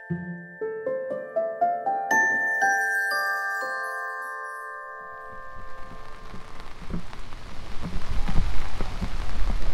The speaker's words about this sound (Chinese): 我现在是在上海，然后，哎，我的天呐，今天这个天气可是真不好，下着中雨，还刮着小风。然后我现在打着伞，举着麦克风，去参加一个活动，在上海中山公园观鸟活动。